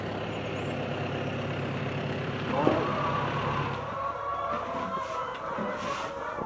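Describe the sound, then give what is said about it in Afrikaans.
A tractor engine runs steadily on a farm with vineyards, a continuous low diesel rumble and drone with a brief metallic clank or hiss partway through. “Ek hou van die geluid van 'n trekker.”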